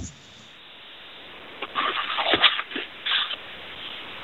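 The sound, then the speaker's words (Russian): A radio call-in caller from Volgograd rustles and crinkles paper while looking for his question, in a cluster of irregular, crackly bursts lasting under two seconds, moderately loud over a faint steady hiss, with no one speaking. “из Волгограда шелестит, шелестит бумагой, ищет вопрос.”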